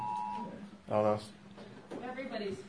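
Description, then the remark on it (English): A phone's Amber Alert emergency alert tone sounds: a steady electronic beep fades out, then a short, loud, harsh buzzing burst follows. Afterward a person speaks briefly. “That's my phone, I think.”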